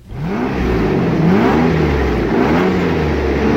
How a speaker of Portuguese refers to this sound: Esse, o que vocês ouviram aí é um, um ronco silencioso e tranquilo de um Mercedes-Benz W140 S600. Com, claro, a versão com V12 M120 de 6 litros